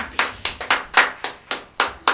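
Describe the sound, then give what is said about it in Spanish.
Steady, rhythmic clapping from people outside, as far away as the street corner, applauding a singing performance. About nine sharp claps in two seconds at an even beat, each with a short ringing tail. Moderately loud, with no voices. “Muy, hasta muy afuera Hasta, fuera afuera, aplauden. De, la, esquina aplauden.”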